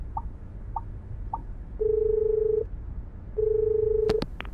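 signal or alarm, telephone dialing tones

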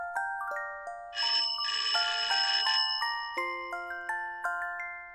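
household object, doorbell ringing

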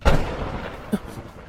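nature, thunder

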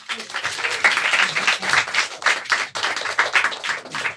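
crowd, applause

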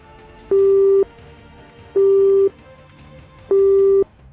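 signal or alarm, phone call ringing tone

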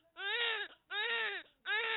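human body sound, baby crying

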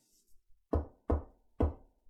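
impact, knocking on a door

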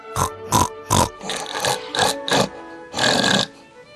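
animal, pig oinking

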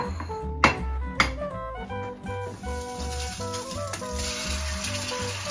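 food or drink, egg frying

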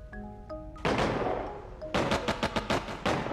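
sound effect, gunfire sound effect

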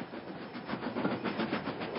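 vehicle, train running on rails

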